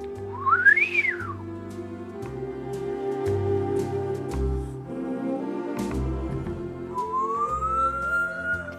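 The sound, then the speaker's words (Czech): A whistled trill: a quick, shrill swoop rising and falling near the start, then a quieter, slowly rising whistle at the end, both over a steady low droning background. “Umíš tadyhle tak, takovýhle trilek?”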